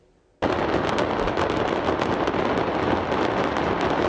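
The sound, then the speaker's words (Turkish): After a brief quiet moment, a loud, dense barrage of fireworks erupts in an explosion at a fireworks factory in Hendek, Sakarya, and keeps going, with rapid crackling bursts and pops piling on top of each other nonstop, intense. “Sakarya Hendek'teki havai fişek fabrikası patlamasında yaşamını yitirenlerin sayısı 7'ye yükseldi”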